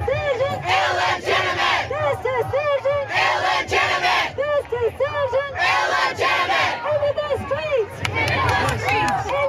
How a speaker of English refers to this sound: So anyway, they're in their chant there